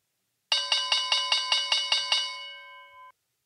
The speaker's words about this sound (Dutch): De bel van de rondvraag, de afsluitende rubriek.